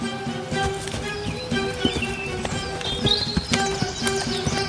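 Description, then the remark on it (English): Donkey hooves clip-clop at an unhurried walking pace as a trader walks the donkey, loaded with six sacks of salt, to the market, a steady series of crisp knocks against a continuous tonal background hum, with no voices. “The next day, the trader again loaded six sacks of salt on the donkey's back and walked him to the market.”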